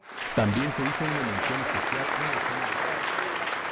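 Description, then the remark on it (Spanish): A large crowd bursts into sustained applause, dense and steady throughout, with a voice speaking over the clapping near the start, at the Premio Nacional de Periodismo award ceremony, right after a speech by one of two indigenous women receiving the award. “Un aplauso multitudinario estalló al instante.”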